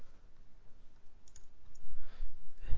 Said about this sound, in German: Sie hören das vielleicht. Das war jetzt gerade die Taste, die ihn äh, hier in der Verfassungsklage eingebracht hat.